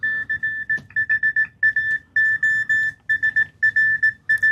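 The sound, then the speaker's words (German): A steady, high electronic tone keys on and off in a quick run of short and longer Morse code beeps, clear and fairly loud over a low background rumble, with no talking. “Jetzt haben wir gerade noch ein Beispiel von Morse, hoffe ich mal.”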